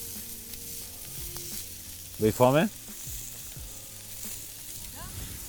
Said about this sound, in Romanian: Acum știi că sunt tot felul de oameni care o să privească podcastul ăsta și mulți o să se uite la cârnații ăștia de pe disc și o să calculeze caloriile.